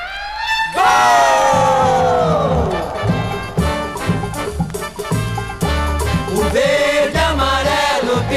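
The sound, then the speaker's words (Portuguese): A crowd of 53,000 at the stadium in Stockholm roars, cheers and applauds loudly and continuously as Brazil's captain Bellini receives the World Cup, the Coupe Jules Rimet, with bursts of whoops swelling throughout, no single voice standing out from the mass of sound. “Capitão da seleção do Brasil, recebe neste instante a Coupe Gilles Rimet, aplaudido por 53 mil pessoas no estádio de Estocolmo.”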